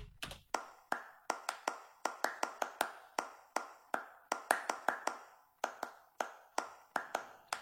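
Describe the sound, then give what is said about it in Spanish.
A single recorded hand clap, pitch-shifted and used as a sample to build a steady percussion loop: dozens of sharp, crisp hits alternating between higher and lower tones in a repeating groove, with no voices. “que realmente es una sola palma, pero simplemente después de grabarla le cambio el tono y luego la eh, hice, hice este patrón de percusión.”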